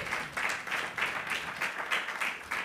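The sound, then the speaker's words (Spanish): A church audience applauds for God, called the King, in a dense, steady wash of clapping, pulsing with a rhythmic beat about three times per second. The applause stays fairly loud throughout, with no voices over it. “Denle un aplauso al rey.”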